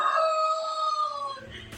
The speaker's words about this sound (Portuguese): Ah, galo sem jeito, não tem hora nem lugar para cantar. É só a gravação do plantão começar que segue-se o canto. Olha aí o primeiro ato aviário.